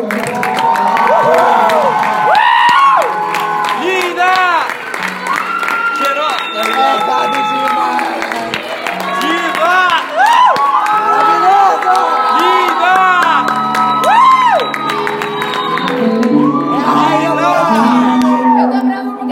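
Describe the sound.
A large audience breaks into sustained, loud applause and cheering to welcome a preacher, dense clapping running throughout with rising whoops and shouts from many voices, energetic.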